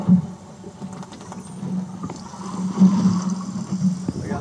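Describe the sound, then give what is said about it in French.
Spotted dolphins buzz and click underwater in quick, scattered bursts, picked up by an underwater recorder hanging from a boat, riding over a steady low engine drone from the boat, with no voices present. “Ça, ces petits buzz là, ça peut être de la communication.”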